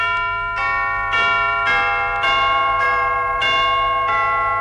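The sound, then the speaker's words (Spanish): Tubular bells, made of metal tubes, ring out in a steady series of about eight bright metallic strikes, each chime overlapping the last and sustaining with a long shimmering decay, loud with no talking. “No es la mamá de las campanitas, son las campanas tubulares. Son tubos de metal y su voz es linda.”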